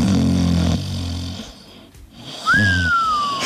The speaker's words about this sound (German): genau, Schnarchen.